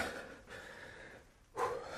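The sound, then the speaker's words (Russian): Heavy, labored panting: three long, breathy gasps in and out, the last one sharper and louder, of someone catching their breath after climbing the stairs of an apartment building. “дышусь. Ах, Коля, не следовало бы этого делать.”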